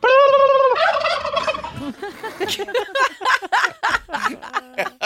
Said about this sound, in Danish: han siger bare en kalkunlyd, så er de klar med det samme. Mm. Her er klip nummer et.